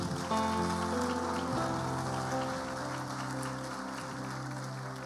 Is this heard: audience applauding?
yes